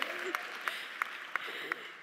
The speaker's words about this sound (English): P.S. Thanks for our tech people. They save lives, okay? Yes, thank you. Please clap for that. They really do.